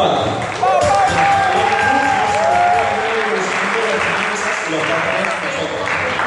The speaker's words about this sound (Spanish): Ese aplauso es un aplauso de invitación para ti que estás sentado, para que tú también puedas estar aquí a, arriba contando testimonios testimonio tema de bebidas contando, capacitando a las demás personas acerca del sistema